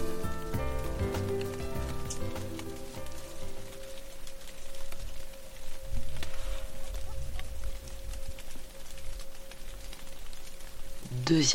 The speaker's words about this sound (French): la pluie est au rendez-vous.